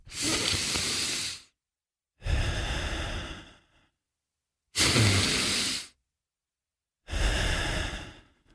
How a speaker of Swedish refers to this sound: Jag andas, eh, jag fick tipset att det ska vara typ som två sekunder in och tre sekunder ut. Så att egentligen är det väl, alltså jag andas genom näsan nu. I början började med munnen, men jag kör med näsan.